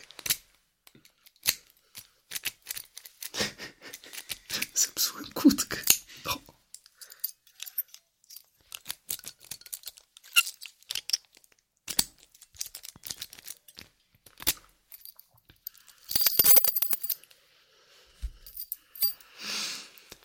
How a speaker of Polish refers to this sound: I jeszcze z takich e, ciekawych rzeczy, które wydają dźwięk, mamy kłódkę na siłownię.